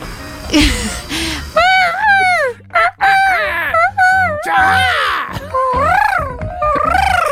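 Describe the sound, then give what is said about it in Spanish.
A bird calls again and again, loud, each cry wavering up and down in pitch, with short pauses between the calls that fill the whole stretch. “¿Qué es eso? Pájaro, chútense.”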